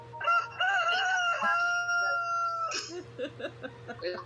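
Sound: rooster crowing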